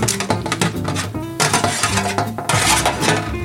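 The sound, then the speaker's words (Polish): A spoon stirs bigos in a pot, with repeated scraping and clinking of metal against the pot in an uneven rhythm, fairly loud and continuous, with no talking. “Musimy to mieszać, nie?”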